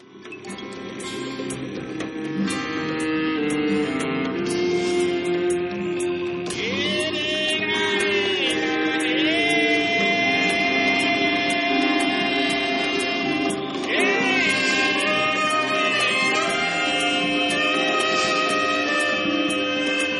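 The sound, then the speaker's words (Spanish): The opening theme of the Brazilian TV series 3% plays on its own: dense, sustained electronic tones with rising and gliding melodic lines over a steady, loud bed that swells in after a soft start. “Hoy hablamos de 3% y la cabecera suena así.”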